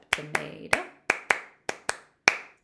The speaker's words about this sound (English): And we'll use Bump Up Tomato. We're going to sing the song and play the game very quickly, and then clap those first eight beats. Bump up.